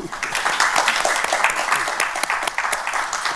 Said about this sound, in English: Um, please join me in giving a warm thank you, round of applause to our panelists today.